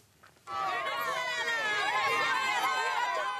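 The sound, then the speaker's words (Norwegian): A large crowd of President Hugo Chávez's supporters at his rally in central Caracas, Venezuela, chants and shouts in unison for their leader, a loud, dense mass of overlapping voices that bursts in after a brief quiet moment and holds steady to the end. “De roper på sin store fører.”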